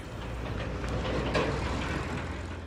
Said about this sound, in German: Ringsum stehen Gewerbebauten, ein kühler Herbstwind weht durch die Nebenstraße, ab und an rollt ein LKW vorbei.